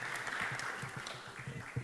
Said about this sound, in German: So, aber wenig Applaus für die Frauen.